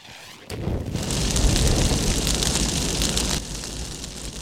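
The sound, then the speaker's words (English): A big bonfire roars loud and steady, with dense crackles and pops over a deep rumbling whoosh that eases off slightly toward the end. “So here we are at the bonfire, and it's absolutely gorgeous. It's toasty. It's crackly.”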